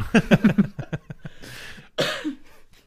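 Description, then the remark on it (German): A person suppressing a cough lets out a run of short, stifled bursts that builds into two harsher, breathy coughs, moderately loud, with no talking around them. “Servus, ich unterdrücke gerade ehrlichen Husten.”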